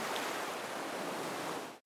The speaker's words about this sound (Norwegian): Lyden av bølger som slår mot brygga.